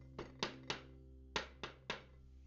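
In a story, the Big Bad Shark knocks on the door of a seaweed house: two sets of three firm knocks, evenly spaced with a short pause between the groups, sharp against a low steady hum, with no voices.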